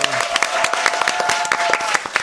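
A crowd applauds with dense, rapid clapping that stays steady and fairly loud throughout, with a faint sustained tone running beneath the first half. The audience is asked for a big round of applause for a young girl who sings and hopes to become a singer-songwriter.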